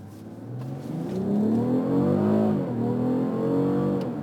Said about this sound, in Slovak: Oh výborný zvuk. Super, že máš, dobre, máš do 10 litrov spotrebu, máš dvojtonové auto, máš takýto úžasný zvuk, ako čo viac ti treba? Máš pružnosť brutálnu, máš ten pružnosť, motor má naozaj silu.